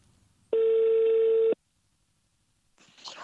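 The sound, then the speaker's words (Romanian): A single loud, steady telephone ringing tone sounds for about a second as someone places a phone call, followed by quiet and then a faint burst of rustling noise. “Asta până într-o zi când pur și simplu am zis fuck it și am pus mâna pe telefon.”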